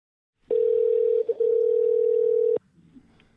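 A phone call's ringing tone: one loud, steady electronic beep lasting about two seconds, with a brief flutter partway through, then cutting off into faint background noise.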